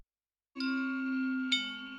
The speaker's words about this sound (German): Alle Glocken auf einmal. Das ist schon eine Herausforderung. Aber das macht Laune.